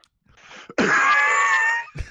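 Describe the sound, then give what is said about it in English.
A man coughs with a rough, wheezing strain: a brief rasp, then a drawn-out hoarse, high wheeze lasting about a second, followed by another short cough. No talking. “As he coughs.”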